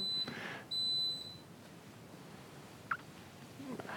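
An electric kettle beeps twice, a short high-pitched electronic tone followed by a longer one, then only faint background noise and a soft click remain.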